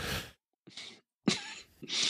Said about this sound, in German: Ja, ähm, ich huste mal kurz.